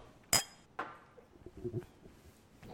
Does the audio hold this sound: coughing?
no